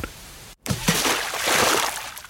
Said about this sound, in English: Ah, oh, dang it. I see I'll have to go in the lake again to investigate.